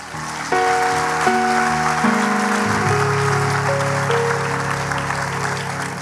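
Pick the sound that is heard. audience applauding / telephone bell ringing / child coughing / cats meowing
audience applauding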